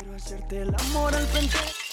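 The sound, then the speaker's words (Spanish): A sudden loud crash of glass shattering, with bright ringing shards scattering for about a second after a brief low humming tone. No one speaks. “Se rompió ahora, se repara ya en Juan Lacase JBL Vidriería”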